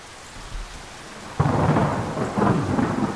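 Steady rain hisses in the background, then a loud crack of thunder breaks out midway and rolls on in a heavy, rumbling wash over the downpour.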